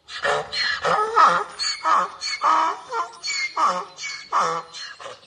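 A donkey brays loudly, a long run of rhythmic, harsh hee-haw cries that rise and fall in regular pulses, with no talking.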